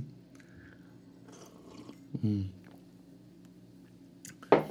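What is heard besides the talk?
sipping coffee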